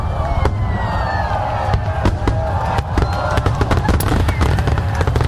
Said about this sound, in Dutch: Op eh, Spotify is een eh, afspeellijst gemaakt met opnames van vuurwerk.